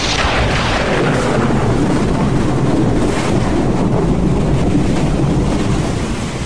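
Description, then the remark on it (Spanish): A stormy sea roars steadily at the port of Veracruz, with loud crashing waves and heavy wind buffeting throughout, a dense, unbroken wash of noise and no voices. “Mientras tanto, en el puerto de Veracruz se desataron las primeras tormentas imprevisibles.”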